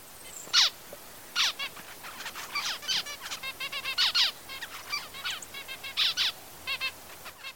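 A male diamond finch sings a rapid string of high beeps, squeaks and buzzy trills, clear, the bursts tumbling one after another for several seconds with no voices.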